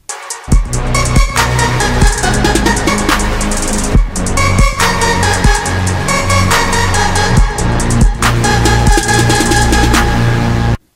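A loud, dense synth-driven chorus with a vocal-like formant lead, a sound called Formant Gadget in the Massive synth, layered over thick chords and punchy, steady drum hits, playing continuously with brief breaks in the beat and no talking.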